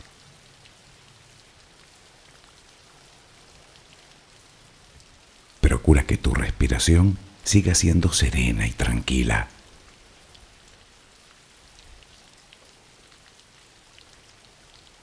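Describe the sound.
Steady, soft rainfall hisses evenly throughout, a gentle constant patter with no breaks, used as background for a guided sleep relaxation. Partway through, a calm voice speaks for a few seconds over the rain, then the rain continues alone.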